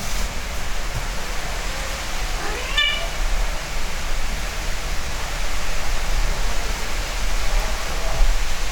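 Heavy rain from a thunderstorm pours in a dense, unbroken hiss throughout. A cat meows once near the middle and faintly again near the end, with no talking.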